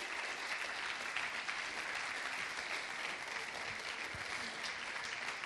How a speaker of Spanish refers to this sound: Y también como somos alguien, queremos darles un fuerte aplauso para también tener una transición al siguiente número musical.